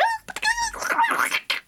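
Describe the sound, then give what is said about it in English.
A voice squeaks out a brief burst of high-pitched, warbling gibberish, imitating how scary monster sounds recorded in fast-forward mode would sound when played back, with an almost inhuman, chipmunk-like quality. It is fairly loud, with a short pause near the end. “So when I would play it back, it would sound super high pitched and almost inhuman, like”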